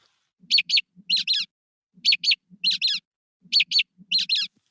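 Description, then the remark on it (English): A mockingbird sings a short four-note phrase three times in a row. Two quick notes are followed by a second pair with a different timbre at similar pitch, clear, with no talking. “the third and the fourth note are a different timbre than the first and the second note, even though the pitch hasn't changed much.”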